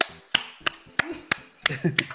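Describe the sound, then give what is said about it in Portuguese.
Six sharp hand claps at a steady, even pace, each a crisp bright smack, with a faint voice murmuring underneath toward the end. “Tô batendo palmas.”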